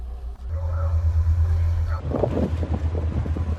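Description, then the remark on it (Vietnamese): Waves slap and splash against a naval ship sailing from Cam Ranh naval port, Vietnam, toward the Spratly Islands at year's end, growing busier partway through, over a steady low engine drone and gusting wind noise, in rough sea and strong wind. “Càng đi ra đất liền, tiếng sóng vỗ mạnh hơn, tiếng nói cười ít dần.”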